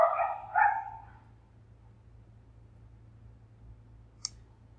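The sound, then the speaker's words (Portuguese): A dog barks twice in quick succession at the start, then the scene falls quiet except for a low steady hum and one sharp click near the end. “Os cachorros não não, não colaboram comigo, realmente.”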